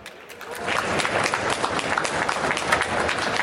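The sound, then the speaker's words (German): An audience claps steadily for two guests on a stage, a dense wash of many hands building quickly and sustaining at a fairly loud level, with no voices standing out. “Also, bitte einen ganz großen Applaus”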